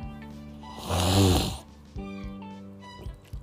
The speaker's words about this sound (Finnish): Äh, anteeksi tuo ylimääräinen ääni, mä en tiedä, mulla on limaa ulkona erittyy ja sitten tuo nenä on tukos, niin oli pakko vähän äh, päästellä mielenkiintoisia ääniä.